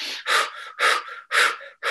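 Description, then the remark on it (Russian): Several deep, forceful breaths taken as a breathing exercise to get more oxygen into the body, loud rushing inhales alternating with softer exhales in a quick, steady rhythm, with no talking. “несколько вдохов-выдохов.”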